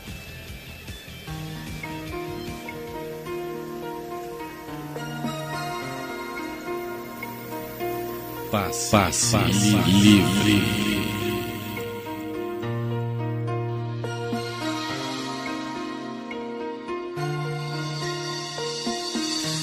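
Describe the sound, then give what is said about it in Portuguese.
A pop song plays back steadily with sung vocals over melodic instrumental backing, holding moderate volume throughout and swelling slightly around the middle. “Então vamos ouvir aqui … com um …”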